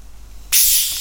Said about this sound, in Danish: Kunne I høre det? Det er mig, der åbner en flaske dejlig cola og skruer låget af, og nu skal jeg til at hælde op i et glas, fordi vi skal rigtig hygge os.